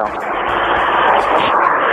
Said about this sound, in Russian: У нас очень большое эхо идет.